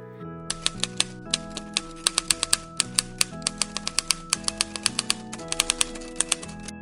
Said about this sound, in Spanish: Mientras Otto distraía al dragón, Diana empezó a escribir en la máquina, pero al presionar las teclas hacía mucho ruido y el dragón se molestaba más.